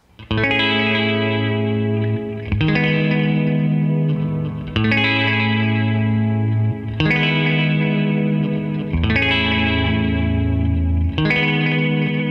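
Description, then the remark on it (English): Electric guitar, played through a univibe effect, strums sustained chords that carry a song's chordal harmony, changing roughly every two seconds, with a swirling, wavering modulation coloring each loud, ringing strum; no voices. “It's actually my guitar playing a much a, a majority of the the chordal harmony you hear on that song.”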